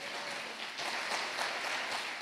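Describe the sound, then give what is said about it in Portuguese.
A church audience claps for the Lord Jesus during a service, a dense, continuous wash of many hands applauding together, swelling slightly in intensity midway and holding at a fairly loud level, with no voices standing out. “Aplauda o Senhor Jesus.”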